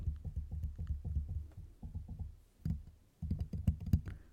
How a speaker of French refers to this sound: Là, je vais taper sur le pied de micro. Là, je vais taper sur le micro en lui-même.